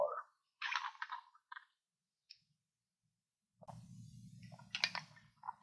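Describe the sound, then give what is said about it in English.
A person drinks water: a few quick wet sips and swallows, a quiet pause, then more soft gulping over a low, steady murmur. “I need to take a drink of”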